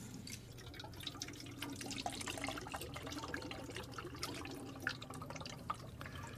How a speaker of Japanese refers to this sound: これで実際の水の音がするのはこれです